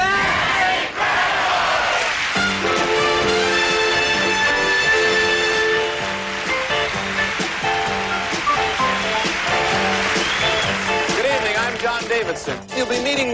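The large studio audience of the TV series That's Incredible roars and shouts "That's Incredible" together, loud, over bright brassy music that keeps going beneath the sustained crowd noise for several seconds.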